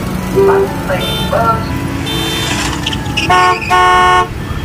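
Several car horns honk repeatedly in a jammed, narrow street, short toots and longer blasts overlapping, with engine rumble and a dense traffic din underneath.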